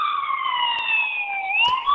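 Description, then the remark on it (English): A wailing emergency siren in downtown Vancouver holds a steady high tone, slowly dipping then rising again, loud and continuous throughout, with faint street noise and brief clicks beneath it. “The sirens are constant around downtown Vancouver.”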